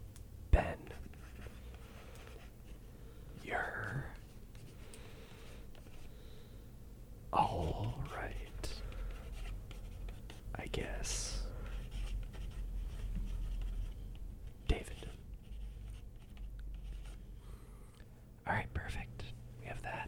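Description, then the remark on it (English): A sharp pencil scratches across paper in short, irregular strokes as a letter is written, separated by pauses, with soft whispery, breathy sounds in the background. “All right, so we're gonna begin to write this letter. Make sure my pencil's nice and sharp.”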